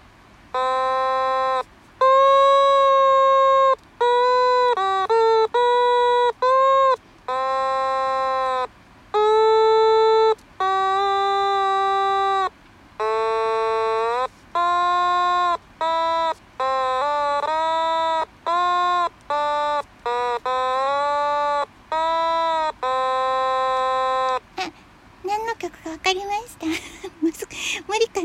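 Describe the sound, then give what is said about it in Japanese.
An otamatone, played by someone only on their second try, picks out a song by ear in a slow, halting melody of distinct buzzy, voice-like notes with gliding pitch bends and short pauses between them, fairly loud, ending in a brief burst of noise. “オタマトーン♪♪２回目（まだ触る程度）”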